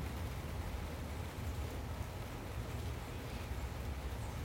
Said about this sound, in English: Can you hear the sounds of the rain? envision the rain coming down, washing your body, cleansing the spirit, and cleansing the soul.